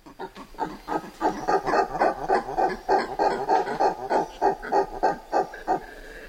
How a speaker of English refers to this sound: Douglas Quinn recorded and then condensed a day in the life of a group of woolly spider monkeys who live near the Caratinga Biological Station in the Atlantic forest of Brazil.